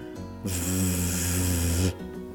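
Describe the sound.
A voice holds a single voiced 'vvv' fricative buzz, made with the vocal cords and with the upper teeth touching the inside of the lower lip as for F, for about a second and a half, steady, with a buzzy hum under the hiss and quiet before and after.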